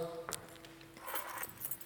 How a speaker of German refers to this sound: als Beispiel mein Schlüsselbund. Ja, das ist der große vom Auto, vom Haus, Garage, Briefkasten, noch von einem Haus.